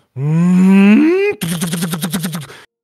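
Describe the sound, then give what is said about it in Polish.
A voice imitates a car's revving engine with a rising hum as it pulls away, then breaks into a rapid burst of about nine evenly spaced, loud staccato pops, like automatic gunfire behind the car. “jak seria po prostu leci za tym samochodem.”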